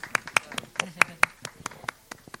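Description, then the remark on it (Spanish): Scattered applause from a small group at a literary reading event, welcoming the next reader to the stage: uneven sharp claps rather than a dense roar, staying at a moderate level throughout and thinning slightly toward the end. “Un aplauso”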